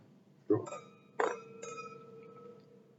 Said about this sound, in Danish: Ja, skal vi skåle for det? Ja, det kan vi godt skåle for.